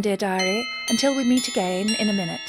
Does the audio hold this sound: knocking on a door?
no